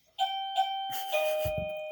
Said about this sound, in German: Türklingel. Okay, ich muss mal eben aufmachen.